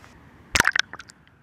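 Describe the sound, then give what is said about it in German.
A short burst of watery splashing and bubbling as a microphone is lowered into the Spree river, followed by a few fainter drips and gurgles trailing off, with no talking. “ja, man kann auf jeden Fall so ein Blubbern irgendwie erahnen, ne?”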